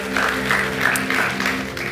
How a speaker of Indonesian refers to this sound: Berikan tepuk tangan yang paling meriah sekali lagi buat Tuhan kita, saudara.